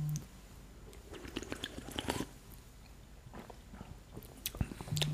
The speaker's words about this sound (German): Lass mal einen Schluck trinken. Also, meine ist auch ungekühlt, damit sie noch ein bisschen ekliger wird.